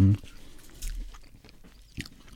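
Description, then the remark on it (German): Someone chewing a burger, with soft wet crunching and a few brief louder bites scattered through a couple of seconds, fairly quiet overall with a short voiced sound at the start. “ich monologisiere ja vielleicht einfach noch ein bisschen hier und du kannst den Burger mhm. doch, einfach damit wir äh, so den Geräuschpegel aufrechterhalten können.”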